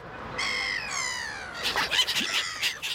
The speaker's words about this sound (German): Habt ihr es erkannt? Genau, es geht um Möwen. Im Urlaub am Meer habt ihr bestimmt auch schon welche kennengelernt, die großen weißen Vögel mit dem gelben Schnabel und ziemlich großen Schwimmflossenfüßen.